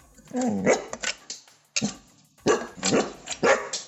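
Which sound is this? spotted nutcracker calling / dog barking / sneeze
dog barking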